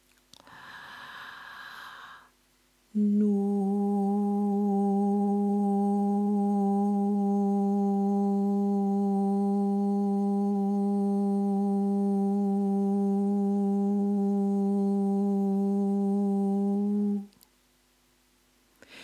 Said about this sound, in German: Nun probieren wir das Ganze gleich mit einem Ton auf No oder auf Nu. Du nimmst irgendeinen angenehmen Ton und lässt ihn einfach mal klingen.